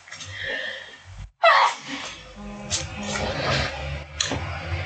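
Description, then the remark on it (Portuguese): A single loud sneeze bursts out after a brief silence, sharp and breathy, followed by some shuffling and low background noise. “Espirrei, desculpa.”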